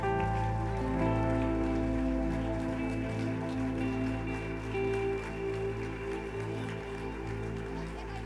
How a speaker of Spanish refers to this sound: aplausos de alabanza al Señor.